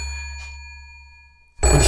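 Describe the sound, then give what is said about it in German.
A large red rotary-dial telephone rings with a bright, bell-like electronic tone that slowly fades, then a loud burst of rustling noise abruptly cuts in. “glaube, ich höre jetzt schon wieder unser Telefon klingeln.”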